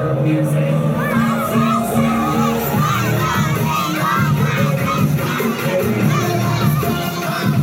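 A cheerleading squad cheers and shouts, heard from outside the field on a day of light drizzle, in a loud, continuous mass of overlapping voices, with rising yells layered over a steady crowd roar for the whole stretch.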